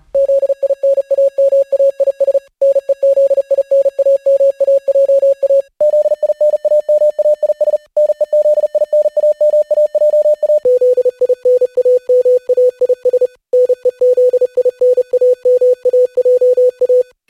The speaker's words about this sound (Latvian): bet noslēgumā kādi klausītāji nākamajos signālos spēs saskaitīt punktiņus un strīpiņas, bet drīzāk aicinājums izbaudīt melodiju un to, kā dažādās frekvencēs, morzes valodā skan mūsu raidījuma nosaukums